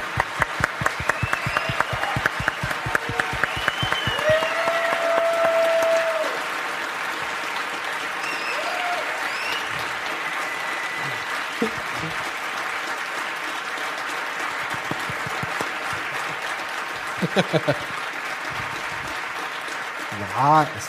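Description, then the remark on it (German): Sustained audience applause from people gathered in Essen, a dense steady patter of many hands clapping that carries on throughout, with a few cheers and whistles rising above it and brief voices mixed in. “Du kannst es doch zehn Minuten Applaus”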